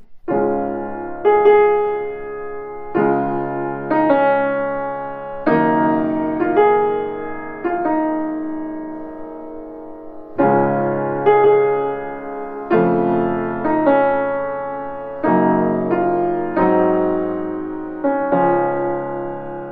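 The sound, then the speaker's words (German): A slow, lyrical orchestral theme from the slow second movement of a symphony unfolds in gentle, swelling phrases, a mellow English horn melody over soft sustained harmony, played alone at moderate volume with no voices. “Berühmt geworden aus der Symphonie ist das Thema des zweiten Satzes, eines langsamen Satzes vom Englischhorn gespielt.”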